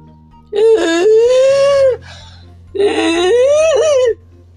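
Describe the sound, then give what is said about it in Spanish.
A voice imitates the labored, wheezing breathing of a woman after a violent coughing fit: two long, strained, whining gasps, each over a second, fairly loud, separated by a short pause. “Ella trataba de respirar, haciendo un ruido como este.”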